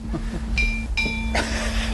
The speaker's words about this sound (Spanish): ¿Qué es eso? ¿Qué pasó? Ahí va Están mezclando las campanas. Pero ya que está tocando esas campanas